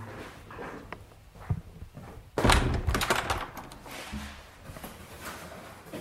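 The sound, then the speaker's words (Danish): A door slams shut with a heavy thunk partway through, followed by a brief rattling tail, with faint shuffling sounds before and after. “Nå, det var bare lige, du smækkede den dør og sådan.”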